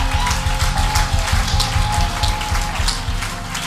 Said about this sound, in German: Holy Spirit, can we give Jesus a big hand right now? Applaus Come geben. On, Come on, ein Riesenapplaus. Let's make some noise.